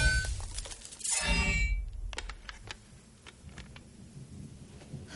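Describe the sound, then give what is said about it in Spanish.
A sword slashes through tall grass on an open plain, the stalks stirred by wind, in one quick, rustling swish, followed by scattered faint crackles and ticks as the cut stalks settle. No one speaks. “Ella las corta de un espadazo.”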